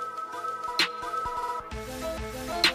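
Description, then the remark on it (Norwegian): A short page-turn cue chime signalling the listener to turn to the next page: a bright bell-like ding rings out twice over a steady tonal musical backing, clear, with no voices. “Husk bare å bla om til neste side når du hører denne lyden.”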